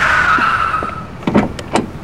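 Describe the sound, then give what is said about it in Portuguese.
A car driven by a valet pulls up at a restaurant entrance with a thin tire squeal that fades out, followed by a few sharp clunks and bumps, like the vehicle settling or a door moving. “Meu carro tá com manobrista, ó.”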